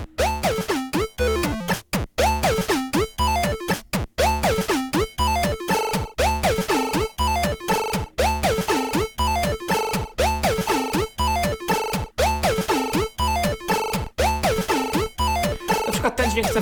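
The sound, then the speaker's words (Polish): A loud, busy arpeggio from a pocket synthesizer loops rapidly in repeating note patterns, its tone sweeping and warping as it's modulated by turning the right knob while holding the right button, with sharp rhythmic cuts breaking the sequence throughout. “Na przykład z tym arpeggio mogę zrobić dokładnie to samo.”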